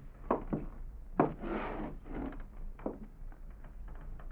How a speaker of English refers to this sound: Then I heard somebody coming down the hall outside my door. I thought for a moment they might be going past, but then.